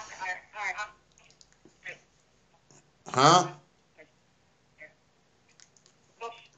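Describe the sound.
A voice over a phone line cuts in and out, arriving as short, thin, choppy fragments separated by dropouts and near-silence, with a louder garbled burst in the middle.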